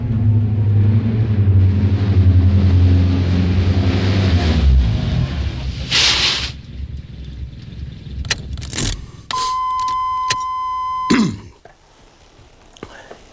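A car engine drones steadily for about five seconds on a drive from Los Angeles to Pasadena, then cuts out, followed by a short hiss, a few sharp clicks, and a sustained electronic warning tone.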